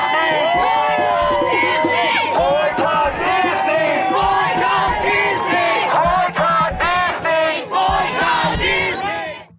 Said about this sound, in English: The crowd started chanting as he raised a guitar in one hand.